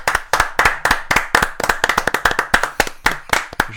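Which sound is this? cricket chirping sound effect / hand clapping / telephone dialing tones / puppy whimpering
hand clapping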